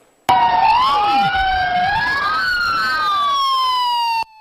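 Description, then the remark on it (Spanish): A loud wailing alarm siren in southern Turkey, sounding as a powerful earthquake shakes the ground, sweeps up and down in pitch, with layered tones crossing each other, sounding steadily for about four seconds before cutting off abruptly, with no one talking. “Una vez más, las alarmas sonaron y la tierra tembló fuertemente en el sur de Turquía.”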